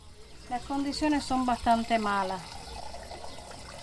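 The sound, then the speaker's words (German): Water runs steadily from a tap as a woman fills a pot with fresh water in her home, a continuous hissing splash, while a voice speaks over it for the first couple of seconds before the water carries on alone. “Frisches Wasser gibt es nicht immer, sagt sie, während sie einen Topf damit füllt.”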